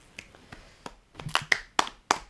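Around nine hand claps in an uneven rhythm, a few soft sharp smacks at first, then louder, fuller claps toward the end, with no voices.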